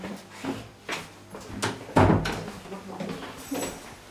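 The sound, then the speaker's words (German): A red metal cabinet door bangs shut with a sharp, resonant clank near the middle, surrounded by softer handling clatter and rattles, in a small room where pressed rose specimens are kept in a herbarium. “In einem kleinen Raum stehen Metallschränke mit roten Türen.”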